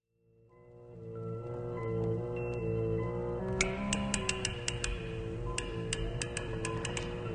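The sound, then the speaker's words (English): Sharp clicks of a bank lock's tumblers at 3 a.m., magnified many times by amplification equipment, arrive in an uneven series over a sustained, droning musical backdrop, starting partway through and continuing loud to the end. “at the Gotham First National Bank, and the clicking noises you hear are the tumblers of a lock magnified many times by intricate amplification equipment.”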